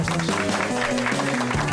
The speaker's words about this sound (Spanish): Un aplauso